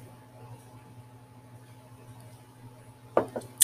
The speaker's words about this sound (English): Excuse me, a sip of water.